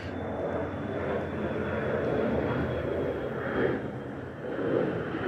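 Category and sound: vehicle, airplane flying overhead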